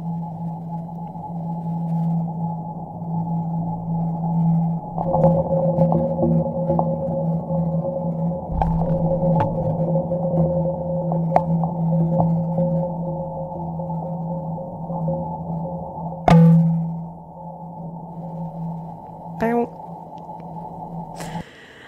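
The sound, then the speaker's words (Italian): A steady low mechanical hum runs throughout while solar panels give two creaking deflection knocks as they flex entering and leaving shadow, followed near the end by a brief resonant plong. No one speaks. “Quindi si sono proprio sentiti i due momenti di eh, deflessione de- dei pannelli solari e poi questo plong in fondo.”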